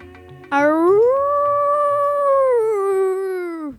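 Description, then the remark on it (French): A single long howl from the wolf Haroun rises in pitch, holds steady for a few seconds, then slowly sinks and fades, heard at the edge of a wood as the howls come closer. It is loud and clear over a low, quiet background murmur. “Haroun, Haroun, où es-tu Les hurlements se rapprochent.”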